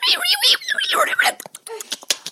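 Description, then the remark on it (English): A person imitates dolphins, first with high, wavering squeals and whistles, then with a quick run of sharp, dry clicks. “They were everywhere around me, and I could hear them just like”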